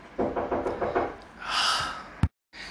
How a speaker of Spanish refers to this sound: No, no eran los vecinos, era mi hermana que andaba tocando la puerta porque mis patitos tienen hambre.